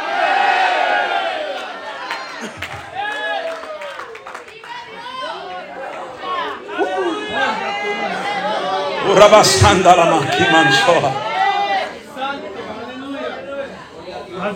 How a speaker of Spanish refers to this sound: Y si tú eres iglesia, levante ese grito de si puede.